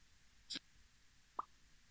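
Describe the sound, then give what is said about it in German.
A short, scratchy velcro rip is followed about a second later by a single small bubble plop, both quiet and isolated against faint background hiss with no voices. “Also erst Klettverschluss, dann Blubberblase.”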